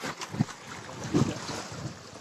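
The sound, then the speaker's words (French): Steady wind buffets a sailboat on open water, broken by two dull, heavy thumps against the hull a moment apart as an orca pushes, shoves and rocks the boat. No one speaks. “Ah, L'orque a passé plus de 30 minutes à jouer et secouer ce voilier.”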